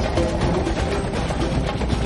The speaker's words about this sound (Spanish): Los helicópteros aterrizan.